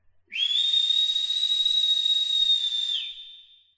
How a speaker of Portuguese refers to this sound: O clima ficou pesado e todos fizeram silêncio, até que de repente ouviram um assobio estridente.